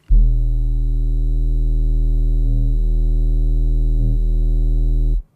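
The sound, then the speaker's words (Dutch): A steady, very low 40 hertz hum, played as an example of the low-frequency sound wind turbines produce, drones continuously for about five seconds at constant loudness, with no voices, starting and stopping abruptly. “Als voorbeeld laten we een toon horen van 40 hertz.”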